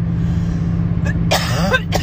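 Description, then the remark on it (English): A few harsh coughs burst out in quick succession over a steady low engine-like hum, with a short pause after the first one. “I'm sorry that I'm coughing.”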